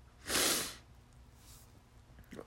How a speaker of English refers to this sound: Excuse me. ah, good sneeze. Good sneeze.